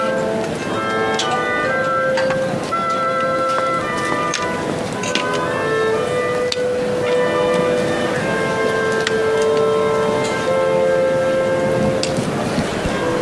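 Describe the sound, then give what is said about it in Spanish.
A capilla wind trio of oboe, clarinet and bassoon plays a slow, solemn melody of held notes that step up and down, over a constant rushing hiss; the oboist raises and lowers the instrument to cue the clarinet and bassoon when to start and cut notes. No one speaks. “como el eh, del trío de capilla, el del oboe, va subiendo y bajando el instrumento, es lo que sirve para que el clarinete y el fagot sepan cuándo tienen que iniciar la nota o cuándo de cortarla para cortarla los tres”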